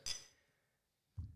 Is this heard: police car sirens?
no